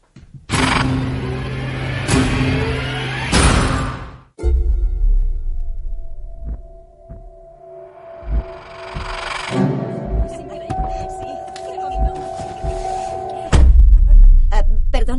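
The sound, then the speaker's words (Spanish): A dramatic film-trailer soundtrack: loud whooshing hits open it, then a sustained eerie drone builds with scattered clangs and swells before a heavy, deep booming impact near the end. “vamos a escuchar el tráiler de Múltiple y empezamos a hablar de ella”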